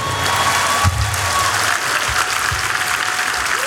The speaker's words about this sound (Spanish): tenía que dar un aplauso más grande a ustedes.